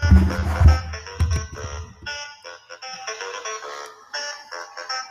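A saxophone solo plays a bright, wavering melodic line, backed by thumping bass and drums for the first couple of seconds before carrying on alone at a steady, moderately loud level.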